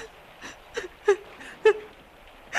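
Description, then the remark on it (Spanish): A woman kneeling on the floor sobs quietly, catching her breath in short, shaky gasps and faint whimpers that come in an uneven rhythm, with no talking. “Arrodillada en el suelo y llorando.”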